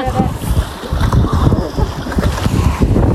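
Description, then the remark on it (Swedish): Strong wind buffets the microphone outdoors by open water on a cold January day as a group goes winter bathing, a steady loud rush with gusty swells, while indistinct voices sound faintly beneath the roar. “så var det ju med ett inslag ifrån januari när ett gäng glada SRF-are hoppade i vattnet i blåst och elände och kallt som sjutton var det, men vinterbada skulle de.”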